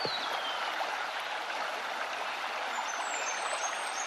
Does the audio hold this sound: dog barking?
no